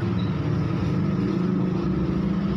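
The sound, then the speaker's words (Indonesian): A steady, loud low rumble of road traffic with many trucks and other large vehicles, with a deep droning engine hum running continuously, without clear pass-by swells and with no voices. “Kamu loba truk mah hoream aing. Loba mobil badag.”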